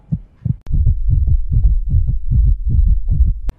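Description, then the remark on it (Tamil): A deep, thumping heartbeat starts slow with a couple of beats, then quickly speeds up into a rapid, steady pounding. It's loud, with no voices, and ends on a sharp click. “பிடிச்ச ஒரு பொண்ணையோ பையனையோ பார்க்கும்போதோ இல்லை அவங்க குரலை கேட்கும்போதோ இல்லை அவங்க வாசத்தை சென்ஸ் பண்ணும்போதோ இல்லை யாரோ அவங்க பேரை உச்சரிக்கும் போதோ இல்லை அவங்க வண்டியோ செருப்போ வீட்டுக்கு வெளியில் பார்க்கும்போதோ நம்ம ஹார்ட் பீட் என்னாகும்”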